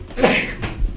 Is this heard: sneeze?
yes